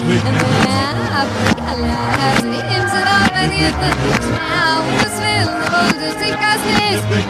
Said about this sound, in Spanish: Venga, de calentamiento tenemos medio puntito y vamos ahora con la siguiente canción del revés que se escucha así.